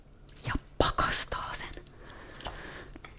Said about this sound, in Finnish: Ja sitten on muuta aika hyvä konsti, kun monesti niin tarvitaan mehu ja sitten toisella kertaa se kuori. Niin ennen kuin alkaa puristaa mehu sitruunasta, niin raastaa sen kuoren